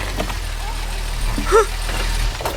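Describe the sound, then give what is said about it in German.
An MG sports car arrives, its engine rumbling low and steady throughout, with a short high-pitched squeak partway through and faint background noise. “Da kommt ein Auto. Aber das ist nicht irgendein Auto, sondern mein MG.”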